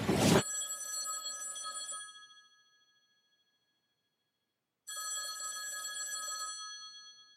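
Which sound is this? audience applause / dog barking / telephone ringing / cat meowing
telephone ringing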